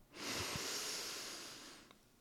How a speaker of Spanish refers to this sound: Y ahora, con la certeza de que ya tienes eso ahí para rescatarlo cada vez que quieras, vamos a tomar una respiración profunda.